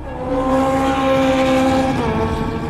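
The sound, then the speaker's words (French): A motorcycle carrying Alain Armato races off at very high speed, its engine whining at high revs, loud and sustained, with a brief dip in pitch near the end like a gear shift. No voices. “On a vu partir une moto avec Alain Armato euh, euh, dessus, une moto partie euh, à très vive allure”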